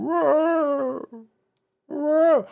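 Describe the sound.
A voice imitates the eerie, drawn-out moaning call of an overgrown mega-perch fish monster in a video game, heard near a river: two wavering wails separated by a short silence, fairly loud.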